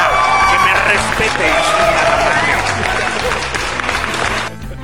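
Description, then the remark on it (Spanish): A loud burst of applause and cheering for 'el patrón' on a radio show: dense, steady clapping with shouts and whistles mixed in, holding for several seconds before cutting off abruptly at the end. “Sí, ya, ya, muchos pinches aplausos”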